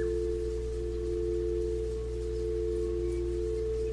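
A quartz singing bowl rings during a guided meditation with a steady, sustained tone, its pure hum holding evenly for several seconds over a soft low drone, with no voices.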